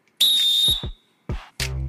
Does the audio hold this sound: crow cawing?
no